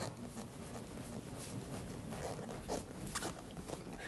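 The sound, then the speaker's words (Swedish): Leather creaking and squeaking as someone shifts on a leather sofa, with steady rubbing and a few sharper squeaks near the end. No one speaks. “jag vet att vi inte gör sånt, men vi sitter i en lädersoffa därav.”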